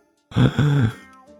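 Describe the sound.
A voice acts out a yawn: a low, drawn-out groaning vocalization with a rising-then-falling pitch, lasting about half a second, fading into quiet breathy noise afterward.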